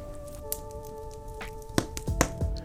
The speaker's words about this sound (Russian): Проконстатируем, давайте давайте я хлопну.